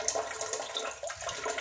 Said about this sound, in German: Ich mir mal kurz die Hände. Oh. Das ist ja gut. Hände waschen.